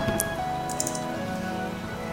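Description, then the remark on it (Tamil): Steady rain falling, a constant hiss with scattered drops pattering on a surface, at a moderate level with no voices. “so இந்த குழந்தைத்தனத்தையும் பற்றி அந்த மழை இவ்வளோ அழகாக நமக்கு சொல்லித்தருது இல்லைங்களா”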